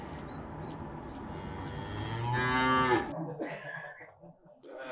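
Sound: cow mooing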